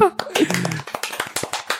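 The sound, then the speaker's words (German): A short burst of hand clapping for someone's coming out, a steady run of about a dozen sharp, bright claps that follows a brief voice at the start and continues to the end. “Einmal Applaus für Coming Out.”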